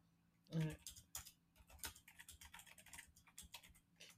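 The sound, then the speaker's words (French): Steady keyboard typing: a rapid run of light plastic clicks and taps with uneven rhythm, over a faint low hum, with no voices. “on risque d'entendre euh, mon clapotis sur le, sur le clavier”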